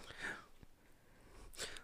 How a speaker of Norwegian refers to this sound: Bikkja tygger fortsatt.